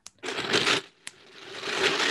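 Someone cracks their finger knuckles: two sharp, distinct pops with stretches of dry, gritty crackling around them. No one speaks, and the sounds are fairly loud and clear.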